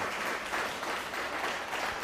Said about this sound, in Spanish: Un fuerte aplauso.